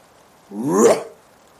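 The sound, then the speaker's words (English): A person's voice gives a single loud, deep growling bark, imitating a giant mastiff. It's one short, rough bass burst lasting about half a second, with quiet before and after. “and it's like a loud ass dog barking, this big, deep bass bark.”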